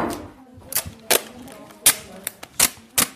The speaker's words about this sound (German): Wir haben jetzt so ein Klebeband, das zieht man ab und klebt es dann auf den Fingerabdruck drauf. Dann zieht man es ähm, von der Tasse ab und klebt es auf so ein Blatt.